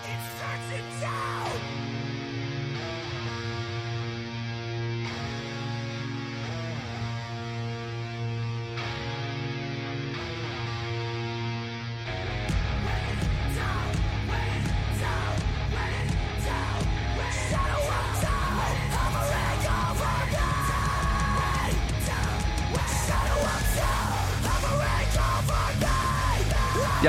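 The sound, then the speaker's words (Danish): Metal music with heavy guitar riffs: sustained, droning chords open the track, then the full band crashes in louder about halfway through, with dense distorted guitars, pounding drums and shouted vocals. “Noget fresh metal, det tænker jeg. Det, er, der er fede riffs, det er helt sikkert.”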